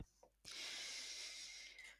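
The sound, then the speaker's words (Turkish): A single deep breath drawn in, a steady airy rush lasting over a second after a brief quiet moment, with no talking. “Bir nefes alıp başlıyorum.”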